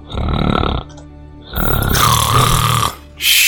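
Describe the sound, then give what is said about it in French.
A voice imitates loud snoring in three rasping, rattly bursts, each followed by a short quieter pause, with a rough, buzzy low rumble and harsh breathy hiss. No one speaks. “Comment tu veux qu'on dorme avec un camion pareil dans, la pièce”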